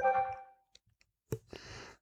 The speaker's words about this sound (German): Warum macht mein Handy Geräusche, wenn ich das mm. ausschalte? Wenn ich wahrscheinlich das äh, Geräusch nicht ordentlich ausgeschaltet habe.